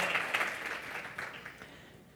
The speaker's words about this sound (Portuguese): Vamos aplaudir essa palavra linda de Deus. Gênesis 1, 28. Aplauda mesmo.